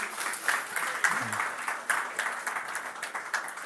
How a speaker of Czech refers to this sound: Takže jestli tady jsou nějaký maminky, nebo jestli nás sledují nějaký maminky, nebo jestli nás sledujete, máte doma nějaký maminky, nebo jste sami maminky, tak juhu, my vám tleskáme a přejeme vám všechno nejlepší k tomuto svátku.